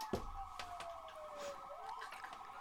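An ambulance siren wails in a steady falling-then-rising tone as the ambulance arrives at a car crash, fairly faint, with a few soft clicks and taps scattered over it and no talking.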